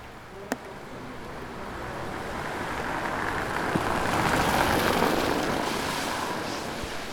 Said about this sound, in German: Es tröpfelt.